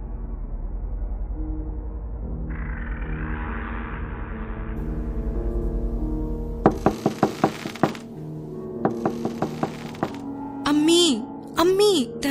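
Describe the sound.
Two quick bursts of loud knocking on a door, several rapid raps each, as someone knocks asking their mother to open it, after a low droning hum cuts off; a voice briefly follows at the end.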